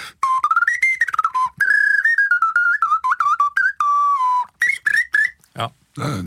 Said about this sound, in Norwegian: Og da fant jeg f.eks. det her, her, en leirgjøk. da, som ja. og Det er en helt spe spesifikk lyd som det er ganske mye av på plata, men det er ofte trestemt. da, Nå er det jo bare én her, men den låter sånn som den her.